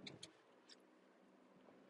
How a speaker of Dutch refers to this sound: ik zit eh, lekker in de auto en ik ben onderweg naar het station